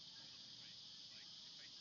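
Cicadas drone in a steady, unbroken high 'jii' buzz that fills the whole moment, a continuous insect hum with faint chirps drifting over a low background rumble, on a hot 33°C summer day.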